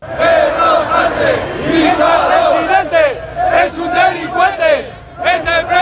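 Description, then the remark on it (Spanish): A large protest crowd of about 7,000 people gathered on a Tuesday in front of the Ferraz headquarters chants loudly in unison against Sánchez, many voices rising and falling in rhythmic, shouted phrases, with a brief lull just before the chant resumes at the end. “Unas 7.000 personas se han concentrado este martes frente a la sede de Ferraz bajo cánticos de todo tipo contra Sánchez.”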